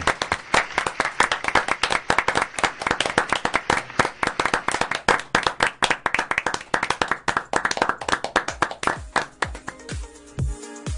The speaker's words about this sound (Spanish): Así que despedimos este programa con un fuerte aplauso para ti,